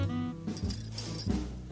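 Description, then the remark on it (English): Miss Caverly's missing keys jangle in a few short metallic bursts spread across a couple of seconds, moderately loud, over a steady tonal musical background. “I found Miss Caverly's missing keys.”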